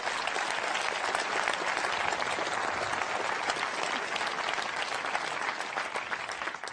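Sustained audience applause, a dense steady crackle of many hands clapping at an even loudness for several seconds, with no voices standing out over it.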